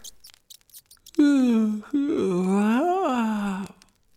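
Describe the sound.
A few faint clicks, then a long, drawn-out voiced yawn that rises and falls in pitch, fairly loud, made by a human voice imitating a little squirrel yawning as it wakes from its nap.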